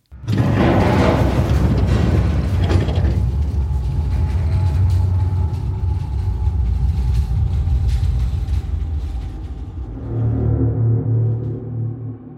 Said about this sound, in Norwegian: DS Norge seiler videre i tjukkere og tjukkere tåke over de neste timene. Klokka kvart på åtte høres et brak, og det rister i skipet.